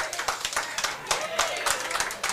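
An audience claps steadily, many quick overlapping hand claps forming a dense, bright patter at an even loudness throughout, with no voices standing out.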